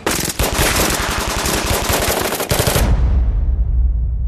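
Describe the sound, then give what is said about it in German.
Loud, rapid bursts of automatic gunfire rattle for nearly three seconds, then cut off, leaving a low rumbling echo that fades out. No one speaks. “Ich habe die Schüsse gehört damals, aber ich habe beides keinen Bezug dazu gehabt und erst in den Nachrichten gehört, was passiert ist und dann auch erst erfahren, wer das war und wie das war.”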